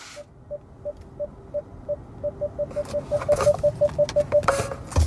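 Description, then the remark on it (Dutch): A Kia EV9 car's traffic sensor warning sounds as a steady series of short, mid-pitched electronic beeps that speed up over a few seconds, heard over low road and engine rumble inside the vehicle, a car about five metres long and nearly two metres wide. “Ja, dit geluid, daar moet je maar even aan gaan wennen als je voor de Kia EV9 gaat verkeerssensoren doen overwerk.”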